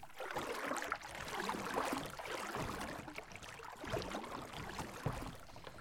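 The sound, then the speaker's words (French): Paddles dip and splash steadily through water as three kayaks set off, with a continuous wash of water and small rhythmic strokes, no voices. “Euh, alors là, euh, ça y est, on part sur notre kayak, sur nos kayaks, on en a trois.”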